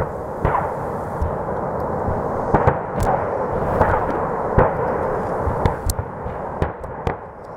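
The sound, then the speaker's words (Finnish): A continuous, heavy rumble punctuated by repeated sharp blasts at irregular intervals, a chain of explosions at an ammunition depot in October 2014, with no voices. The ground shook in nearby Vlahovitse village near the Slovak border, and a thick smoke cloud rose behind the forest. “Lähellä Slovakian rajaa sijaitsevassa Vlahovitsen kylässä seurattiin tuolloin hämmentyneenä, kuinka maa vavahteli räjähdysten sarjassa.”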